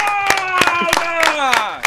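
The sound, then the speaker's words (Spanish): Five or six sharp hand claps at a steady, fairly quick beat, given as congratulations to an interviewee, heard over a sustained voice that holds a tone and slowly falls in pitch toward the end. “Una batida de palmas para vos, felicitaciones.”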